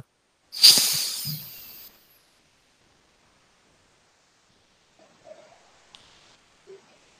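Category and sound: human body sound, deep breathing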